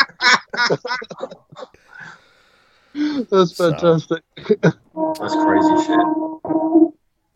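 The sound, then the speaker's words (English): A train horn blares in a sustained, reedy blast lasting over a second, then sounds briefly again. People chat and laugh just before it. “That was the train, not me.”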